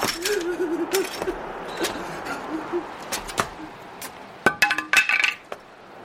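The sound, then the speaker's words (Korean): A man drops a metal cross onto the ground, where it lands with a sharp ringing clink and then clatters in a quick burst of bounces, after a stretch of quieter scattered taps. “그는 십자가를 땅바닥에 떨어뜨리고 초점 잃은 눈동자로 천천히 뒤로 돌아 벽을 짚었다.”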